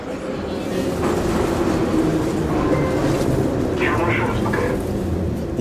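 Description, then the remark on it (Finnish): Steady, loud rumble inside a moving metro carriage in St Petersburg, Russia, with a heavy low roar throughout and a brief high metallic squeal of wheels near the end, indistinct voices blending into the noise as a woman boards trying to sell passport covers to passengers. “Pietarissa metrovaunuun nousee nainen, joka yrittää myydä matkustajille passien suojuskansia.”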